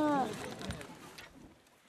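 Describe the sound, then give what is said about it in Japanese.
A few uneven crunching footsteps on riverbank gravel at Nagatoro, Saitama Prefecture, Japan, moderately loud, as passengers step off a Nagatoro Line Kudari river boat, follow a brief voice at the start, then fade into quieter outdoor ambience. “本日はねご乗車ありがとうございました足元気をつけて降りてくださいありがとうございますザクザクと河原に到着しました”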